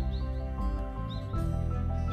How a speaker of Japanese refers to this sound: 声声っていうか、うん、鳥の気配とその気配が発する音しか聞こえない、はい、朝です